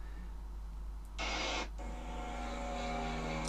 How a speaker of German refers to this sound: Das ist kein Flugzeug. Das ist der Hubschrauber. Hubschrauber oder Helikopter. Helikopter und Hubschrauber, beides ist korrekt.